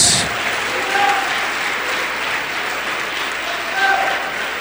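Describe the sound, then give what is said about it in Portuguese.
An audience applauds Jesus during a sermon, steadily, a dense wash of many hands clapping that holds at an even, fairly loud level throughout, with faint voices calling out over it. “Então dê uma grande salva de palmas para Jesus.”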